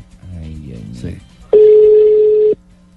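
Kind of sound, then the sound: signal or alarm, telephone ringing tone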